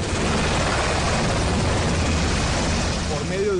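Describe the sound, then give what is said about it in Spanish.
A Colombian army helicopter carrying eight captured people from Toledo to Cúcuta roars steadily overhead, its rotor thumping in a dense, continuous wash of engine noise that stays loud throughout, with muffled voices faintly underneath. “helicóptero del ejército, los ocho capturados señalados de múltiples delitos fueron trasladados con fusiles y pistolas que tenían en su poder desde Toledo hasta Cúcuta, donde quedaron a disposición de la justicia.”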